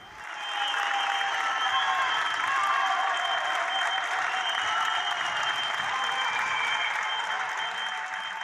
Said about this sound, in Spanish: en el balcón, todos los días a las 8 de la tarde salíamos a aplaudir a los sanitarios al balcón